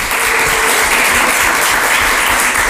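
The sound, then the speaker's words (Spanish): The audience in the old Convent of San Francisco in Montblanc breaks into sustained applause, a dense, steady wash of many hands clapping at once, loud and continuous throughout with no voices standing out. “Pues le voy a pedir a toda la gente de Montblanc que nos está acompañando hoy desde este antiguo convento de San Francisco un fuerte aplauso”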